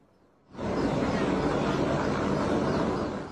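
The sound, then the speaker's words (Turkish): A helicopter roars loudly, its heavy rotor and engine noise kicking in abruptly after a brief quiet moment and holding steady for several seconds, as 1 million dollars is scattered from it over a crowd in the Czech Republic as an advertisement for a film. “Reklam için helikopterden 1 milyon dolar saçtı.”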